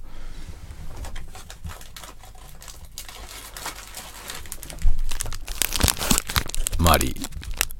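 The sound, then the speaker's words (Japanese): A packet of Marie biscuits is torn open with crackly plastic wrapper crinkling, soft and intermittent at first, then a louder burst of rustling and tearing near the end. “この部屋にある食べ物といえば、マリーぐらいなんだよね。マリー食おうかな。”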